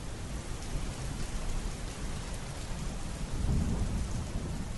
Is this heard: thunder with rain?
yes